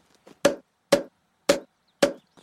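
Four heavy, evenly spaced thwacks of a bear hitting Stampy on the head with a club, each a loud blunt impact with a short ring, separated by silence and no voices.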